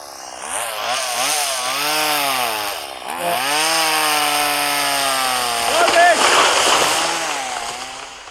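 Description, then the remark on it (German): A chainsaw runs steadily while felling a tree until it falls over, its loud buzzing engine climbing and dipping in pitch as the throttle is worked, with a brief lull partway before it revs up again. “So, Thema erledigt, Baum ist umgefallen, alle Schläger wieder da.”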